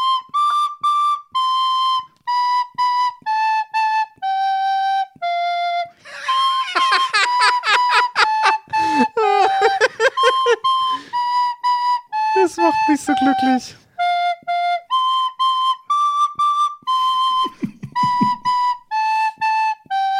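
At the opening of a Christmas market, a flute plays a slow melody of held, steady notes. Midway the tune breaks into a long stretch of shrill, chaotic squeaks and breathy noise, then the calm melody resumes to the end.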